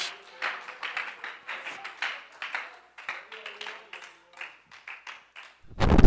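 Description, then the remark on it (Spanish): A church audience applauds the promises of God during a sermon, with steady, overlapping claps and scattered voices calling out, the clapping sustained throughout before a sudden louder, low rumbling burst at the very end. “Y alguien que crea esa palabra, que aplauda las promesas verdaderas de nuestro Dios.”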